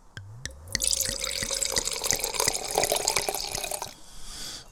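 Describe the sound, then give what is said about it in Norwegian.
Dorli Mult Zweigelt 2022 wine is poured into a glass: a couple of quick clinks, then a steady splashing, gurgling stream for about three seconds that stops abruptly, followed by faint hiss. No one speaks. “Her er det da Dorli Mult Zweigelt nivå 2022 skal vi helle litt i glasset.”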